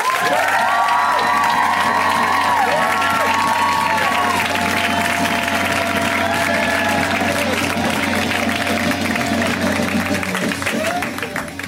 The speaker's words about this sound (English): we like to give a, a huge round of applause when it's somebody's first time on the show.